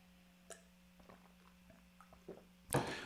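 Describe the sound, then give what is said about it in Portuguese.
Someone takes a sip of water: a few soft, wet gulping and swallowing sounds spaced out over a low steady hum, ending with a sudden louder breathy burst. “Isso dá só um golinho de água, senão eu vou tossir de novo.”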